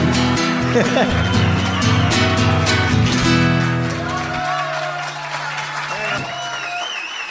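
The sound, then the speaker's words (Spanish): Audience applause at a live show at the Peña Los Chanchitos in Moreno, La Reja, dense clapping mixed with loud crowd voices and tonal sound for the first few seconds, then thinning into quieter scattered noise. “Muchas gracias por todo su cariño, por sus aplausos.”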